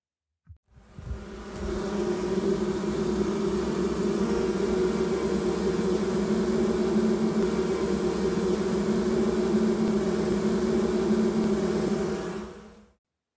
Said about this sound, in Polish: Tak brzmią pszczoły, kiedy im się trochę pogrzebie w ulu. Są zburzone, niespokojne i naprawdę głośno bzyczą.